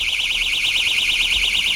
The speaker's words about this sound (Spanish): El Sindicato Médico de Málaga va a repartir a los médicos unas alarmas de bolsillo disuasorias